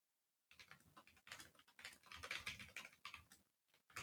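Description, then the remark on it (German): Rapid typing on a computer keyboard, a dense run of crisp key clicks with brief pauses, heard alone without any talking. “Hören Sie nun Keyboard ASMR vom Feinsten.”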